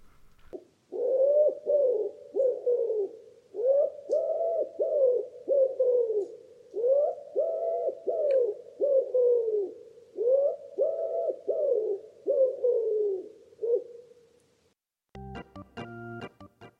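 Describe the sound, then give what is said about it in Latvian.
Recorded bird song: a bird repeats low, soft cooing phrases in a steady rhythm for about fourteen seconds, clear, before a short burst of a different, buzzy sound cuts in. “Vēl tik tā bija tava ideja, ka mēs šodien klausīsimies putnu dziesmas.”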